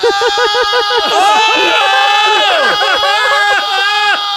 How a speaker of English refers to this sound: I rescind my scream.